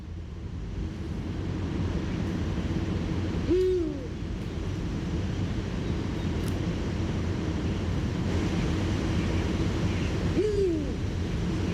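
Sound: owl hooting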